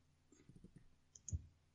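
A quick double click of a computer mouse, two crisp taps in rapid succession, fairly quiet, following a few soft muffled bumps with no one talking.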